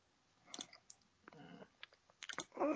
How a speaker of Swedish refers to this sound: Mycket klickande.